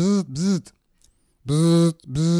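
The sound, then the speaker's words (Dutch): A voice imitates the motor of an electric lift chair with loud buzzing whirs. Two quick arching hums come first, then a pause, then a longer steady whir and the start of another. “De stoel van uw moeder, meneer. Die maakt er ook nog geluid bij, zei ik.”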